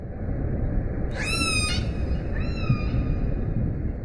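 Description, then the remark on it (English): Two orca whistles, each a brief, high, bending tone with a rise and a slight fall, the second a bit fainter. Both sit over a steady, rumbling underwater hiss, with no voices. “They will identify themselves by their own whistle, but then use another animal's whistle to call to them.”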